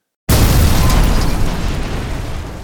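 A sudden, heavy slam as a charging rhino crashes into a metal garbage can lid held out like a shield, bursting out of silence into a loud, booming roar that rumbles on and slowly fades.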